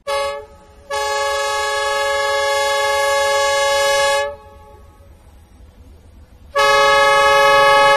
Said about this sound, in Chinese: 伴随着响亮的汽笛声，首趟中欧班列伦敦至义乌满载着母婴用品、维生素等三十二个货柜的货物缓缓驶入义乌铁路西站。